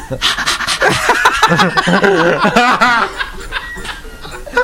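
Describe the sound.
A person mimics a dog, letting out loud, rapid panting breaths mixed with short yelping barks and whiny, wavering vocal sounds, with no ordinary speech.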